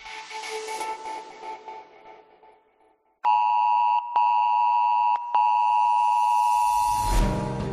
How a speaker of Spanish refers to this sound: Pues esto, aunque lo parezca, no, no, es ningún aviso de bomba o alerta nuclear. Eh, es verdad que si vives en Madrid la escuchaste justo hace una semana. Es una alerta de protección civil.